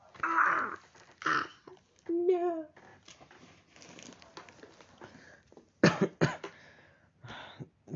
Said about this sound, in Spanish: quedé con tos desde el resfrío, no sé por qué.